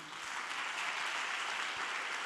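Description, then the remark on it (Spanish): A large crowd claps together in a dense, steady burst of applause that holds at an even level throughout, with no voices rising above it, as listeners at a sermon on 1 Corinthians applaud at the preacher's request. “Ahora aplauda para que se sienta bien.”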